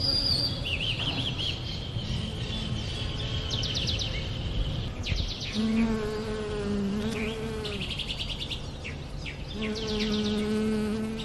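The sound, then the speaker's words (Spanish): Bees buzz steadily among yellow flowers as they pollinate them, a continuous droning hum with wavering tones, while birds chirp brightly in the background. “Por eso las abejas están allí felices entre las flores amarillas. Observen cómo siguen polonizando.”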